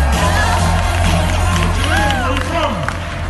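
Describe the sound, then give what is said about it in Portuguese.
An audience bursts into loud, continuous applause, a dense wash of clapping with cheers and rising whoops on top, holding steady for the few seconds without a break. “Give a hand, ladies and gentlemen.”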